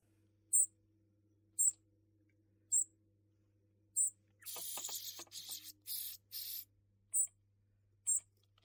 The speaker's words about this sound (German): Ein Vogel. Und wer ist dieser Vogel?